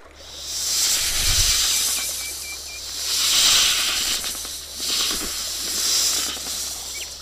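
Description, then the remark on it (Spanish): Long, breathy hissing of the serpent beside Eve in the Garden of Eden story, swelling and fading in several broad waves over a few seconds, with a brief low thump near the start and no voices. “¿Y quién está con Eva? Es la serpiente.”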